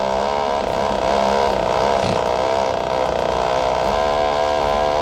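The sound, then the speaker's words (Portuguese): A motorcycle fitted with a loud, modified "coyote" exhaust roars and revs steadily, its harsh buzzing engine note filling the whole recording with no talking. “Mas aquele escapamento de coiote é só o que dá nos, nas carreatas, meu amigo.”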